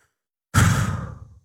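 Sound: slow deep exhale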